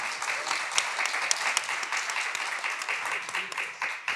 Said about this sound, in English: You guys, I'm up here with some of our incredible BC worship team members, and yeah, let's give it up for them.